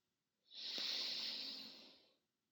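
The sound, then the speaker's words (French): A single long, deep, airy breath drawn in through the nose, rising quickly and fading out after about a second and a half, with no talking. “Vous allez prendre une grande inspiration par le nez.”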